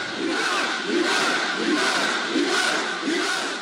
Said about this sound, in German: Degage, hau ab, Ben Ali, skandieren die Leute.